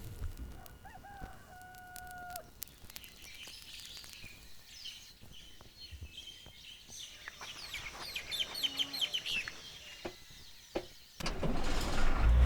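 A song intro by a Paraguayan music group opens with a rural soundscape: a rooster crows early, birds chirp and twitter through the middle, then a louder burst of sound swells in near the end.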